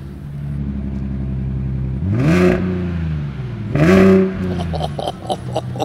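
A half-electric hybrid car's engine is cranked and idles with a low hum, then revs up twice in strong rising surges, followed by a quick rhythmic clatter as it settles. Fairly loud, with no talking.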